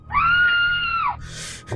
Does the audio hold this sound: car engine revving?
no